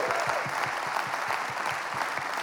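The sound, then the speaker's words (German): A crowd applauds steadily for all their connected locations in Zürich, many hands clapping in a dense, even patter that holds at a constant loud level throughout, with no voices standing out. “Und jetzt, bevor ich anfange, lasst uns einen Applaus geben an all unsere Locations von Zürich.”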